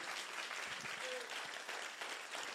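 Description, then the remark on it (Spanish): A church audience applauds for the Lord: steady, dense applause, a continuous wash of clapping that holds at an even loudness throughout, with a brief high whistle-like tone rising above it. “Den un aplauso al Señor si usted lo cree.”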